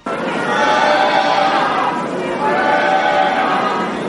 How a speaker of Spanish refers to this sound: Los, los virus sindicalistas estaban todos fuera, como te digo, los 100, los que habrán llevado en autobús y con un bocata, ellos estaban gritando. Si quieres, vamos a escucharles, pero poco, no hace falta mucho más.